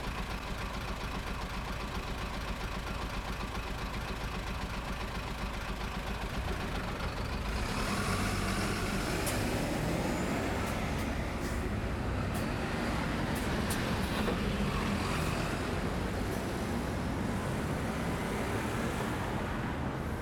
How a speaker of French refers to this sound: la seule chose qui compte pour Fanfan, ce sont les bus qui montent et qui descendent la rue